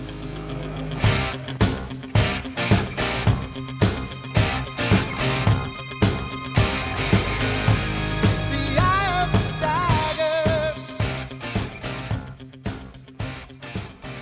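A loud 1980s rock song plays, with heavy, evenly spaced drum and guitar hits driving a steady beat and a bending lead line rising briefly in the middle. No one speaks.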